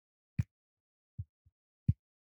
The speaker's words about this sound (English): I'm back with the pen. This is the sound of the pilot razor point. This is the cap coming on and off.